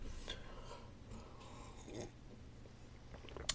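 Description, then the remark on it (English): Quiet slurping sips of coffee, a few soft wet mouth sounds and breaths over a steady low hum, with no talking. “I drank a lot of coffee, and I'm still drinking some coffee as I take another sip.”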